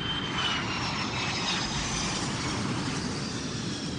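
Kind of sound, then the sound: vehicle, airplane landing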